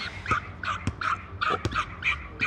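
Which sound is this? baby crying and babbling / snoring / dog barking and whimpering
dog barking and whimpering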